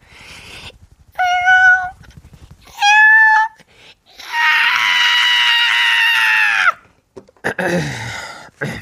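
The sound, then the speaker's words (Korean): On a radio show, a person mimics a cat to play with a listener's cats, with a string of loud meows: two short mews, then a longer drawn-out yowl, followed by a few quicker, broken meow sounds. “라디오로 제가 놀아줘야 하나요?”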